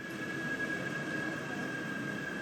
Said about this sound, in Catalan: Així sona Vengen per la gent que no hi hagi estat mai. que aquí, que aquí tu pots sentir el tren que arriba i, si t'hi fixes bé, els cotxes elèctrics.